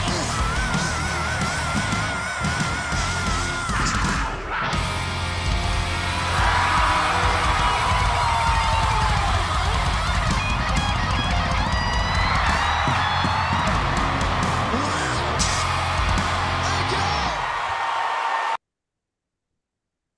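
A large crowd cheers and whoops in a loud, continuous roar, with scattered yells and high whistles rising above it for about eighteen seconds before it cuts off abruptly.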